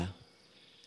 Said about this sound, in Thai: เสียงดังของสรรพสัตว์ทั้งหลายจิงหลีดจักจันเลไลกบเกียดไม่ได้ทำลายความเงียบได้เลย